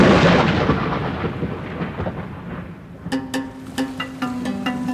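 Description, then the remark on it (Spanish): A loud crack of thunder rolls and rumbles, slowly fading over about three seconds as the storm grumbles on. Then a few soft, ringing musical notes start up over the dying rumble. “Una leyenda cuenta que en una tormenta los rayos cayeron sobre las plantas de agave y cosieron su corazón.”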